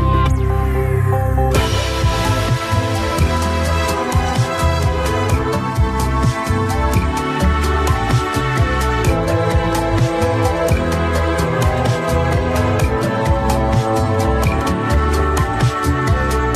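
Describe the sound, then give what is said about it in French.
A pop song plays loudly and steadily, with a driving beat, rich layered instrumentation and a bright sustained texture after a brief, sparser opening; no talking over it. “On va écouter donc euh, ce premier extrait musical”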